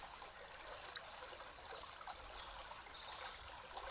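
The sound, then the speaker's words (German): A steady, gently splashing stream of water flows continuously, fairly soft, with faint high chirps repeating now and then in the background. No one speaks. “Und je mehr du eintauchst in dieses Plätschern, in das Fließen des Wassers”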